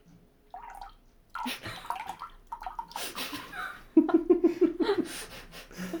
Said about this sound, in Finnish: Sori, nyt mä vähän kaadan mehua tässä.